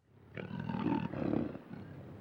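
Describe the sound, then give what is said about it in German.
A lion growls in one long, rough rumble lasting under two seconds, deep and gravelly with a slight rise and fall, heard alone without any talking. “Schnurrend legte er sich und wartete.”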